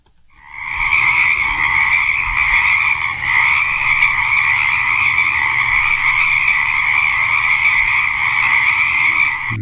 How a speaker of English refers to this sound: And here was the teaser sound for last week, and I'll tell you what, it's also, it proves that frogs can sing, because these are chorus frogs singing on a pond.